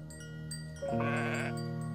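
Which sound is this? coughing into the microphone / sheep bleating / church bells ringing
sheep bleating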